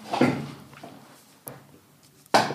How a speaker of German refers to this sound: und noch ein bisschen schieben. Oh, mein Stuhl knackt. Ich muss den Stuhl wechseln.